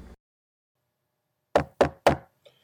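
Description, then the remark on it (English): Three sharp, evenly spaced knocks on a door, loud, after a moment of silence, with a faint tap trailing at the end. “Who's that knocking at the door?”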